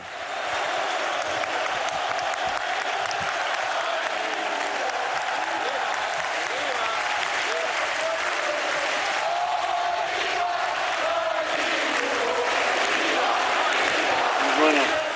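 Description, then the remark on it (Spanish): A large stadium crowd roars continuously, with sustained applause and rhythmic chanting voices blending into a dense, loud wall of sound that stays steady throughout, as heard by a player on the field, including on the day of his farewell. “¿Qué sentías tú, incluso el día de tu despedida, cuando escuchabas esto en el campo?”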